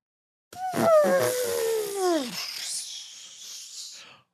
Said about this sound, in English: that is the one minute roundup um, deflating balloon sound